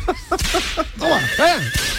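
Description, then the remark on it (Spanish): A carriage horse neighs loudly, starting with a few short, choppy bursts before breaking into a long, quavering whinny that rises and falls in pitch. No one speaks. “este, le, le pega al caballo para mí me interrumpido en, el, este, mitad del paso doble.”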